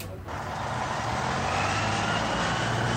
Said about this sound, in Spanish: Transcurridos unos minutos, un segundo autobús público enfiló la calle.